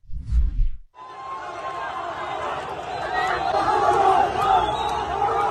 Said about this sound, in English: If you can't see this, this is enormous crowds of people cheering and celebrating, excited at the slaughter of civilians and the kidnapping of other civilians.